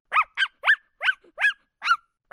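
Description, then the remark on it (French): A dog barks excitedly in a quick, steady series of about seven sharp barks, with no voices or other sounds around them. “Balou aboie d'enthousiasme”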